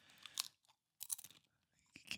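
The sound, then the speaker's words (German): Crisp crunching as someone keeps biting into a crunchy snack, three bursts of crackly chewing separated by brief pauses, with no talking. “knuspert hier die ganze Zeit weiter.”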